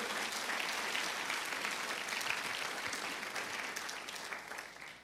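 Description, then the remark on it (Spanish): An audience breaks into sustained applause for the Lord, a dense, steady wash of many hands clapping at an even loudness for several seconds before easing slightly at the end. “Alguien aplauda al Señor.”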